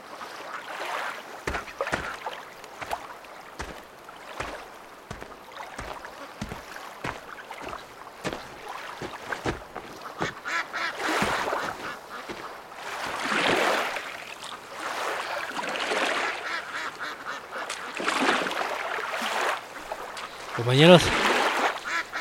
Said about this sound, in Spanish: camina explorando por la orilla de un río que desemboca al mar.